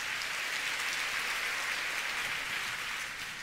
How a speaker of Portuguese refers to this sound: Vai, vai adorando ao Senhor com as tuas palmas, em nome de Jesus.